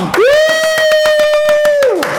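Steady rhythmic clapping, loud and continuous, under a long sustained tonal whoop that swoops up at the start, holds one pitch for nearly two seconds, then slides back down; applause welcoming a guest, the owner of the publishing house Avocado Books.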